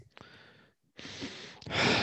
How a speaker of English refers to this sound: … has switched to full USB capability on his mic, so you'll hear him breathing now